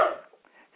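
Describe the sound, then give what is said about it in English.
A single short bark from a dog, sharp at the onset and quickly fading into faint background noise. “so, um, wow, and a dog here that's barking.”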